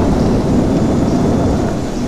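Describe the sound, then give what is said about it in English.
Heavy, continuous rain roars alongside a deep rumble of thunder, a dense and loud storm wash that fills the whole short stretch without letting up, from a category 10 hurricane created in a video game. “I created a hurricane cat 10.”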